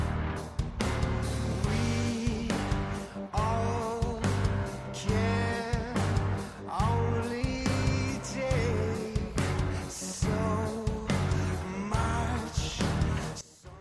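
A soft progressive metal passage plays at steady volume, with layered sustained guitars, a low bass line and regular drum hits moving through shifting chords; no one speaks over it.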